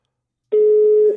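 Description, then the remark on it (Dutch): A steady, fairly loud telephone ringing tone on an outgoing call to a self-employed small-business photographer begins after a short silence, holding a single unbroken electronic pitch with no voices present. “En de telefoon gaat”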